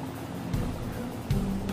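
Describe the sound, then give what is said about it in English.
A lobster boat's motor rumbles low and steady as the fisherman eases it off, with two brief surges in the drone, water sloshing faintly beneath it and no voices. “At the right moment, the man eases his motor, rolls his wheel, pulls his clutch.”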